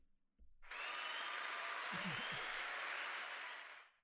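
A burst of crowd applause swells in quickly, holds steady and loud with dense clapping and a few scattered cheers, then fades out after a few seconds.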